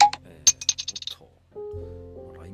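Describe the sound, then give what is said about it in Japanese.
A LINE app notification sound plays on a phone: a sharp crack and fizz like a beer bottle being opened, followed by a quick run of bright clinking taps, then a low sustained tone, all clear. “来ましたね通知通知が来ましたがはいちょっと後で見てみますえー、そうそう LINE の通知は僕はビールのねこう開けるオープンの音なんですけどもはいまあビール好きなんではい”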